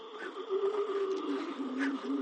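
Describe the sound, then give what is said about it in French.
A seal inflates and shakes its nasal membrane, giving off a continuous, wavering, resonant tone, a fairly loud low warble with gurgling, throbbing pulses and no voices. “Donc, c'est ces phoques déjà essaye de s'impressionner en c'est bruit.”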